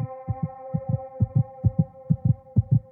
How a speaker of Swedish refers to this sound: hjärta fortsatte att dunka hårt i bröstet.